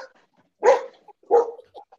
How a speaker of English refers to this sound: Sorry about the dog, guys.